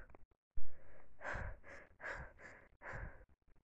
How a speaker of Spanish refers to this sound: Mi temperatura sube en un instante y mi respiración se acelera.